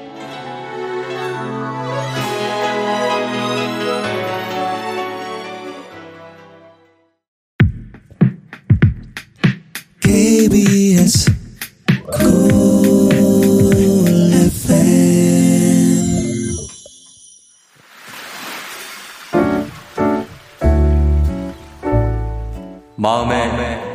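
A K-pop song plays loudly with no talk over it: a smooth, sustained melodic opening gives way to punchy, stop-start hits before the full arrangement swells back in.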